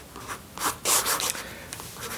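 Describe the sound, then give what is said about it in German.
A pen scratches across an autograph page in a friend book as someone signs it, in a few quick, uneven strokes, a dry rubbing sound with brief pauses between bursts, fairly faint and with no voices. “unterschreibt gerade auf der Autogrammseite.”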